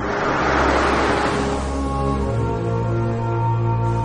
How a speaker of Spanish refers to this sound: De noche, un coche circula por una carretera que discurre entre campos nevados. Lu conduce con Molly durmiendo a su lado. La mira. El coche se aleja.